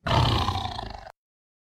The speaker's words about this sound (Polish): Będzie mniej tygrysich e, ryków